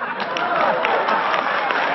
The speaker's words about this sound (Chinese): 就还有你们这观众里是怎么那么讨厌的？我跟我婆婆打架，你们握手，你们鼓掌啊啊！